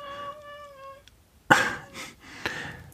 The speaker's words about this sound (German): da hören wir ein bisschen Kater, der Terror macht, der herumquietscht, die Katze anmeckert, sorry dafür.